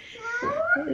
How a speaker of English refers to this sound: you can hear my child in the background trying to enter the room. I apologize.